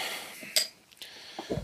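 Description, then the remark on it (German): A beer bottle is opened: a sharp cap pop with a brief hiss of fizz, followed by a few soft glassy clinks and knocks. No one speaks. “Flaschbier auf.”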